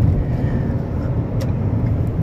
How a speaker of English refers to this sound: I'm driving home from work right now, about to go see my wife.